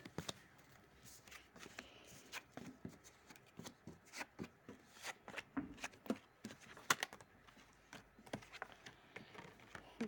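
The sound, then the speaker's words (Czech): Tarot cards are handled and turned over for a tarot reading: a run of quick, papery slaps and soft rustles, irregular and fairly faint, with brief pauses between turns and no talking. “Tak a jdu otáčet karty.”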